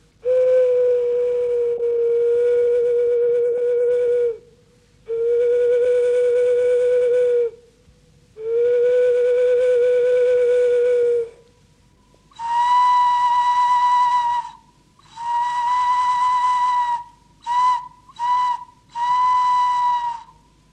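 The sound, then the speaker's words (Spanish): A clay whistle blown loud in long, breathy held notes: three lower blasts, then several higher-pitched ones, including a couple of quick short toots. No one speaks. “Se han encontrado una gran cantidad de silbatos de barro en forma de animales y de dioses.”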